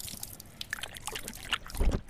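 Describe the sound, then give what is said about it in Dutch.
A pit bull mix dog named Lobo laps water from a person's hand, a run of quick, irregular wet slurps and splashes that grow louder in a final burst. “Kan ik hem ook wat water geven? Dan? Doet u maar wat op mijn hand.”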